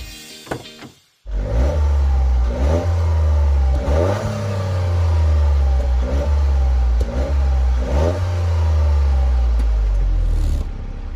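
A Toyota GR Yaris car engine revs repeatedly after a brief quiet start, rising and falling in several strong bursts with a steady low rumble underneath, loud and heard from outside the car, with no talking.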